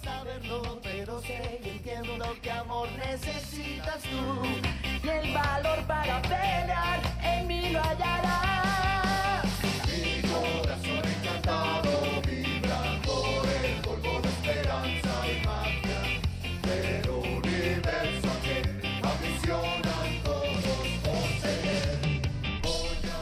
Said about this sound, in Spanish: Vamos a escuchar un poco de esta canción que se titula Mi corazón encantado.